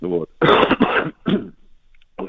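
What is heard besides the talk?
cough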